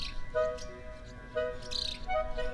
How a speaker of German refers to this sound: Träumend zwitschert die Schwälbin. Geweckt vom liebenden Ruf regt sich leise das Schwalbenmännchen.